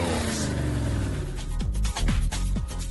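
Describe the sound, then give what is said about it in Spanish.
A loud car engine roars and revs continuously, its pitch climbing and then dropping sharply in three quick bursts near the end, like throttle blips or gear changes. “Voces y rugidos en autos y motos de Blue Radio.”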